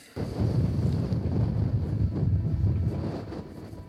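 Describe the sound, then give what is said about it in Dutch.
Steady, blustery wind roars across the microphone outdoors on a beach where David Icke stands, a dense low rumble with gusty swells that starts abruptly and persists throughout, loud, with no voices. “En hij staat nu op het, op het strand. Vandaar het geluid van de wind.”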